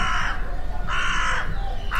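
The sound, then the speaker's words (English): A crow caws loudly, three harsh, raspy calls spaced roughly evenly apart, with a steady low background hum underneath and no voices. “You are right, wise old crow.”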